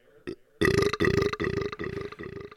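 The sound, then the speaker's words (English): A loud belch rumbles out in several throaty pulses after a brief short grunt, with a stuttering, repeating quality like it's echoing back on itself. “It's just like an echo, echoing burp.”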